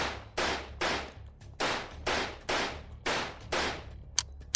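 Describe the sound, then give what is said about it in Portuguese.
A pistol fires a rapid run of about eight sharp shots at charging four-legged creatures, each shot with a short echoing tail, followed by a quick metallic click as the magazine runs empty. “Ele mirou primeiro nos quadrúpedes que se aproximavam mais rapidamente e distribuiu uma sequência de oito tiros entre eles.”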